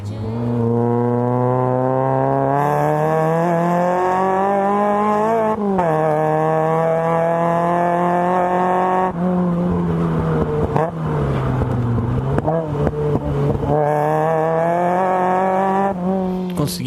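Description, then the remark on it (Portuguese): A Golf GTI Mk1 four-cylinder engine revs hard, its loud buzzing note climbing steadily then dropping at each of several gear changes, with no voices over it. “conseguiram acertar é o Golf GTI Mark One.”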